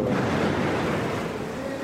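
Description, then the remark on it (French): A low, sustained rumble of explosions and exchanges of fire across the border from Gaza rolls on steadily for a couple of seconds, broad and muffled with no sharp single blast and no voices. “Les échanges de tirs et les explosions dehors, de l'autre côté de la frontière, nous rappellent la proximité des combats.”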